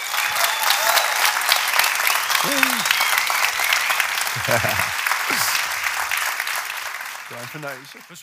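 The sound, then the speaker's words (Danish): An audience claps steadily for several seconds, dense and continuous, with a few brief voices and cheers poking through before the applause tapers off at the end; applause for the panel of the show Kasper og Monopolet. “Kan vi ikke lige give vores fantastiske monopol en hånd?”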